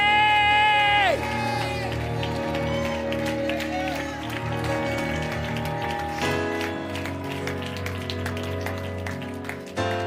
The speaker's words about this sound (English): Hey, why do people yell in Pentecostal churches? We're not yelling, it's a sign of a warrior. Why don't they quiet down?